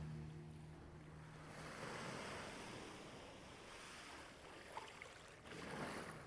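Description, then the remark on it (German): Steady ocean surf washes in with a broad, rushing hiss that swells and recedes, waves breaking continuously with some wind noise over the microphone and no voices present. “Jede Welle schenkt dir ein Gefühl von Freiheit und Lebendigkeit.”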